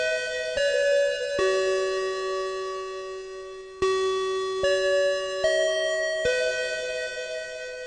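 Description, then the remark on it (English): A school bell chimes a slow melody of about seven clear, ringing tones marking the end of a weekly club meeting, each sustaining and fading into the next, loud with no voices. “And that bell means that this week's meeting of the After School Anime Club has come to a close.”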